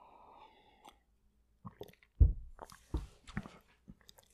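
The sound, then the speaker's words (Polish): Someone drinks water: a soft wet sip at the start, then a quiet pause followed by a cluster of gulping swallows and moist mouth clicks, fairly faint, with no talking. “Przepraszam, jeszcze nie napić wody.”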